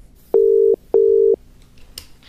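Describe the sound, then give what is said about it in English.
Two steady ringback tones from an outgoing phone call to a guest, each lasting under half a second with a short pause between, clear and fairly loud, followed by faint line noise and no talking. “we're calling you.”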